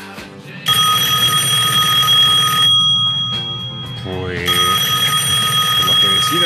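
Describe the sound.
A phone rings with an incoming call at night, a steady electronic ringing tone in two long bursts with a short pause between, loud, while a person talks underneath.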